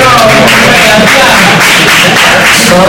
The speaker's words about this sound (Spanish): son, son de la gente que te han aplaudido